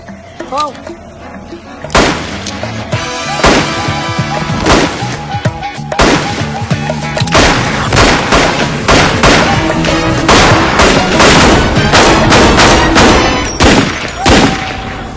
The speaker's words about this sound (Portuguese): Entre um tiro e outro, Dadinho cresceu.